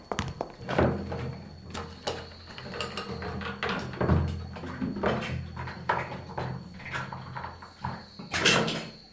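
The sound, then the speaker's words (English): A small bedside cupboard door creaks and clicks open, followed by a run of knocks, rattles and rummaging sounds as someone searches a woman's belongings, over a low background hum, with no one speaking. “The cupboard next to her bed.”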